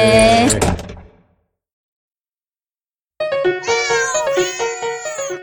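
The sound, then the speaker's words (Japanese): A cat meows loudly, a strained, drawn-out cry, then after a couple of seconds of silence it lets out a longer, wavering series of meows. “はい猫やんですと猫やんですと”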